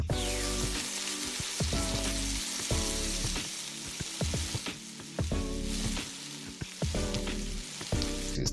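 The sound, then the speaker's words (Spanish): Marinated chicken cubes sizzle steadily in hot oil as they fry until lightly golden, a continuous crackle with occasional sharper pops and faint clinks of stirring, no voices over it. “Tras el marinado, freímos los cubos de pollo hasta que estos queden ligeramente dorados. Escuchen.”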